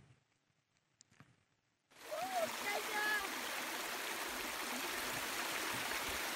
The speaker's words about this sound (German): Ich habe euch einen Videoclip mitgebracht, den ich original mit meinem Handy aufgenommen habe, weil es mich so fasziniert hat. Direkt aus dem Berg kommt dieses Wasser hervor.